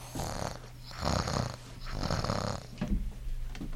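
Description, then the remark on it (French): A person imitates a cat's purr with a throaty rumble that rises and falls in about four breathy cycles, steady and fairly soft, with no talking. “Je me mets alors à ronronner.”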